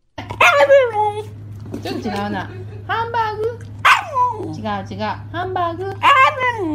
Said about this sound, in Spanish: Hamburger. Dice hamburger. Sí, güey. Hamburger. Hamburger. Un perro que dice hamburguesa.